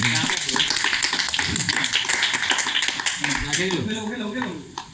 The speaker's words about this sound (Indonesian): Tepuk tangan.